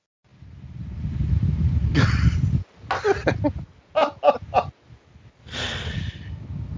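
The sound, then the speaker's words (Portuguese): An electric fan blows straight into a microphone, producing a loud, low rumbling buffet that swells, breaks into choppy gusty bursts, then returns as steady roaring wind noise. “o naranja saiu e deixou o microfone em frente ao ventilador. Ouve o barulho”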